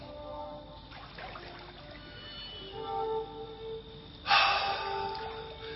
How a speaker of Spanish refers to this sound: Una sierva en enaguas y tetas al aire arroja agua caliente con una tinaja de madera.